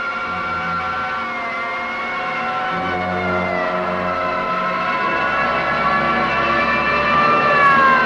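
City sirens wail and slowly rise and fall in pitch, blending with sustained orchestral film music underneath. Steady and fairly loud throughout, with no talking.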